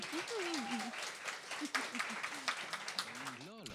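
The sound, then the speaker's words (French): A live audience at a public recording applauds the participants steadily for a few seconds, a dense wash of clapping with voices calling and cheering over it, ending with a brief rising vocal whoop. “on les applaudit, les amis, quand même.”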